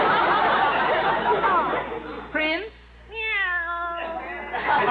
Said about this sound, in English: All right, attention, please, while I call the roll. Minerva? Meow.